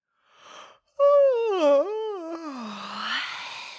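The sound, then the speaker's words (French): A loud, drawn-out yawn from a female elf stretching out at full length with eyes half-closed: a short breathy intake, then a long voiced groan that wavers in pitch before sliding down and trailing off into breath over about three seconds. “Les yeux encore mi-clos, elle s'étire de tout son long en bâillant bruyamment.”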